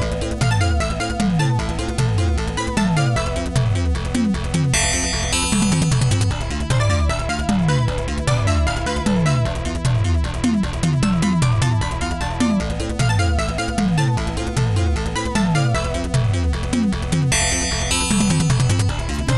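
Loud, driving FM-synth music from the 1984 ninja video game Legend of Kage, with no voices: fast, punchy bass notes that repeatedly swoop downward in pitch under a dense, busy melody, playing steadily throughout.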